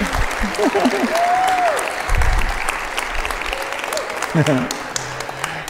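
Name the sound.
audience applause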